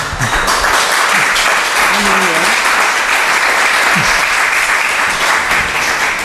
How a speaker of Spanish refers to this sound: Es un aplauso compartido para el presidente de la Junta que abandona. El más sincero que he escuchado.